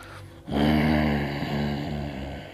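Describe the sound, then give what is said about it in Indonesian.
A person's voice makes a low, rumbling animal-like growl, starting abruptly and holding steady for about two seconds, loud with no other sounds around it. “kayaknya tuh suara geraman itu datang lagi.”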